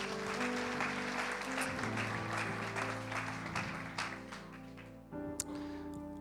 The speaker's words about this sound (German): Applaus für Sie, ja? Ihr Mut.